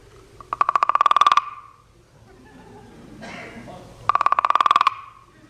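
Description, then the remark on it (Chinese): Two quick, rattling bursts of a set of three wooden clapper boards, called peace boards or toad boards, each a rapid run of about a dozen sharp clacks, imitating a big toad's croak. A brief, murmuring voice-like sound fills the gap between them. “那时节，人们那个搞宣传，爱和平，大人小孩全都打这个和平板儿，因为那个打起来像蛤蟆叫，顾名思义，又叫蛤蟆板儿。”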